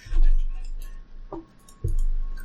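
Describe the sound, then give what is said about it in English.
Two dull knocks against a table, about half a second apart, the second heavier, with a faint low hum and murmur in the background. “Can, can you not like bang against? I'm the table? sorry. That probably makes a very terrible sound.”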